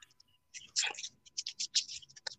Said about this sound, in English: are you ready for me to unfurl this paper in front of me? Let's do it